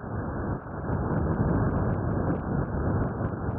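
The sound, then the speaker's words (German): A bacterium made audible through a vibrating graphene membrane drum by researchers at Delft University of Technology in the Netherlands: a steady, muffled, low rumbling hiss, dense and unbroken for the whole stretch, with faint crackly ticks above it and no voices. “Ich weiß, ich weiß, klingt erstmal nur wie ein beliebiges Rauschen, aber was Sie da hören, ist der Sound eines Bakteriums.”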